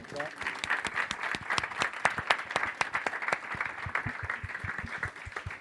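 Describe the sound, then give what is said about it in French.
Steady applause from a group at the Louise Michel library, clapping for Game Spectrum and the library, dense overlapping claps sustained at an even level throughout, with a few sharper individual claps standing out toward the end. “Allez, encore un applaudissement pour eux.”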